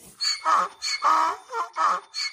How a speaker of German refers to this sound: Ja, der lustige Esel ist da. Er lacht uns fröhlich zu.